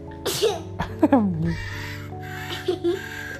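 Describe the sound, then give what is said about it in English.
Harsh, raspy parrot squawks come in a few quick bursts, two close together early on and another pair later, fairly loud, over a steady low background tone. “Parrots loves to make lots of noise. Squawk, squawk.”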